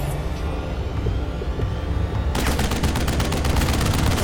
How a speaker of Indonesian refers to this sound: pesawat musuh menembaki KRI Macan Tutul dengan disusul nyala flare yang mereka jatuhkan. KRI Macan Tutul terang benderang.